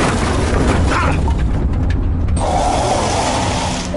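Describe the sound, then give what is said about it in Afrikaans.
A loud, rumbling car crash as a car driving over a gravel road hits something, with heavy booming impact noise and rattling, grinding metal that continues for several seconds, shifting in tone partway through. No one speaks. “Ek het iets getref. 'n ongeluk.”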